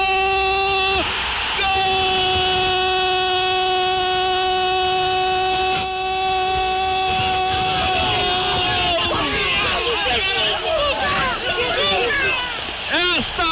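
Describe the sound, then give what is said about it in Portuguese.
A crowd roars and yells after a Grêmio goal in a Copa do Brasil home match as the Grêmio players climb on the corner flag. A long, steady, loud held cry rings out over the noise for several seconds, then breaks into excited, overlapping shouting voices. “É a emoção do grupo de jogadores do Grêmio. Subiram na bandeirinha de escanteio. empolados gritavam.”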